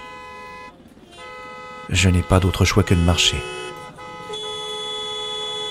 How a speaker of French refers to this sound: Le trafic est à l'arrêt. Un concours de klaxons se fait entendre proche du carrefour vers lequel je me dirige.